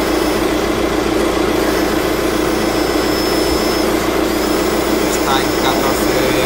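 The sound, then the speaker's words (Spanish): A car engine, just started while its battery is being tested, idles with a loud, steady rumbling hum that holds at an even level for several seconds with no clear pauses or changes. “Ahora arranco el coche y vamos a ver qué hace.”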